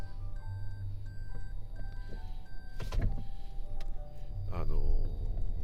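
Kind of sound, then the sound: vehicle, car reversing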